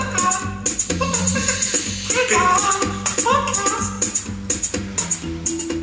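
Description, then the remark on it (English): A bright, upbeat song plays loudly, with a steady percussive beat, a sustained bass line and layered melodic parts; no one talks over it. “What you have just heard is the new intro song of the Peanut Butter Tiger podcast.”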